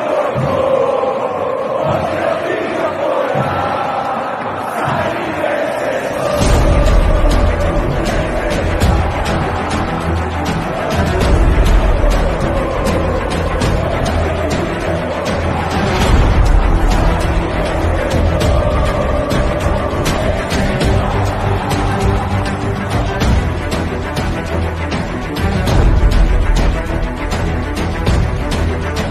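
A huge crowd of Palmeiras football fans, the Mancha Verde supporters, chants in unison in the stadium stands, a loud, sustained mass of voices rising together with a steady rhythmic pulse, thick low rumble underneath and occasional sharp shouts cutting through.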